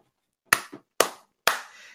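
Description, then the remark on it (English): Three sharp hand claps spaced about half a second apart, each with a quick bright crack and a short decaying tail, the last ringing out a little longer. No one speaks. “You can't just clap.”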